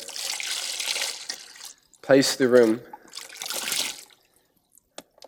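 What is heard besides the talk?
water splashing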